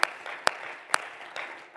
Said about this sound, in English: Oh, clap your hands unto the Lord this morning. Hallelujah, hallelujah.